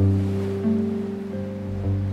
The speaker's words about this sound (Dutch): Kijk, daar is de zee. Je hoort hem toch wel?